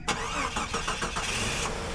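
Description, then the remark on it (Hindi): A driver starts a jeep: the engine cranks with several quick rhythmic turnovers, then catches and settles into a steady rumbling idle, fairly loud with no voices. “driver ने jeep Edward palace की ओर दौड़ा दी”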